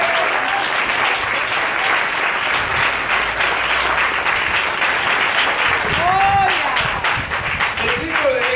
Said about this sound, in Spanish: Hermano, si usted no cree eso, denle el aplauso fuerte al Señor.